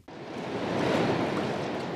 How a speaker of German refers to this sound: Gegen 10.30 Uhr öffnen sich endlich wieder die Tore an der Schleuse Geisling. Erstmals, seitdem hier vor knapp zweieinhalb Wochen der 85 Meter lange Frachter Achim gesunken war. Nun strömt wieder Donauwasser hinein.